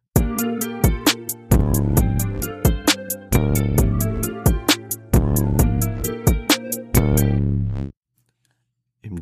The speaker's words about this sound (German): Ist ein geiler Track, den muss man aber auch einfach fühlen. Es hat einen extrem niceen Beat, extrem guter Vibe und dann halt diese Oldschool-Anspielung die ganze Zeit.